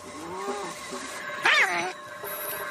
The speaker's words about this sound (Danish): Det er missekatten, der hakker. Ja, den hakker.